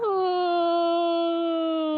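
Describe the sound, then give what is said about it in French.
A young child cries in one long, drawn-out whimpering wail that holds steady and slowly sags in pitch, fairly loud with no other voices; the child is crying because she wants to watch a cartoon. “Alors arrête de pleurer si tu veux que par détresse et instinct de survie, on t'autorise à regarder une famille de cochons hilars se rouler dans la boue”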